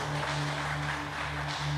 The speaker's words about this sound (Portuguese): Se você crê, diga eu creio, eu tomo posse em nome de Jesus Cristo e aplauda ao Rei. Bem forte.